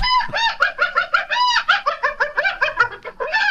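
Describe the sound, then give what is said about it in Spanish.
A rapid, continuous run of loud, nasal, hen-like clucking calls with a slightly yelping, bark-like edge, repeating in quick bursts for several seconds with no talking. “Es una mezcla como entre gallina y perro, ¿no?”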